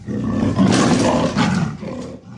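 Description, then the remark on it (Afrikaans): A leopard roars loudly inside a cave, a rough, sustained growling bellow lasting a couple of seconds with a brief surge midway before trailing off. No one speaks. “Hy loop in die grot in en brul hard.”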